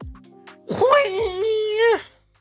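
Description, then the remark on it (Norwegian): A voice imitates a swishing saber with one sustained humming whoosh that swoops up and wavers before dropping away, lasting just over a second after a few soft breathy sounds. “Var det sabel? Sabel, ja.”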